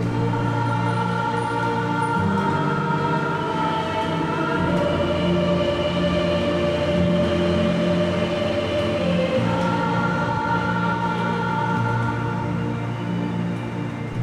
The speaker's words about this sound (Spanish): todos modos estamos hablando de una ciudad tremendamente ruidosa.